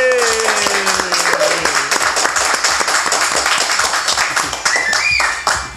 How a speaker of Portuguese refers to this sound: Eu queria uma salva de palmas para esse primeiro episódio aqui do On Tap.